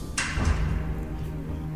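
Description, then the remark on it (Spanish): A loud, dull thud, quickly followed by a heavy bang like a door slamming, then a low rumble fading into quiet, heard from a house at about 3 a.m. No voices. “A la madrugada, ella se despertó por un ruido seco, fuerte, a lo que le siguió el sonido como de un portazo.”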